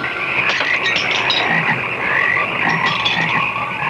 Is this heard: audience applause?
no